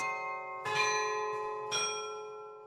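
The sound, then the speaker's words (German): Carillon bells of the glockenspiel at the Munich town hall ring out, with two distinct strikes about a second apart over a bed of sustained, shimmering tones, heard at moderate volume without any talking. “An diese Turniere erinnert heute noch das Glockenspiel am Münchner Rathaus.”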